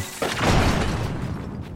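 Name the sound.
video game explosion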